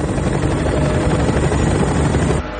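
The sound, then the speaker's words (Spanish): A helicopter roars loudly and steadily overhead, its rotor noise dense, then the sound drops off sharply in the final moments as it flies away from the power plant. “El helicóptero se aleja de la central.”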